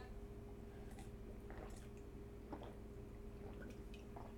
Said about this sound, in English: Oh, it's tea. I don't enjoy chugging tea.